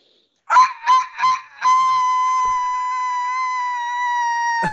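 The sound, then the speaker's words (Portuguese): A voice imitates a rooster crowing: three quick clipped syllables, then one long, loud, held note lasting several seconds, with no other talk. “Eu preciso pensar no tom do galo.”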